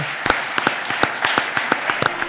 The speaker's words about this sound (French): Un grand merci à vous, Maître Lombardi. Applaudissements pour Maître Lombardi.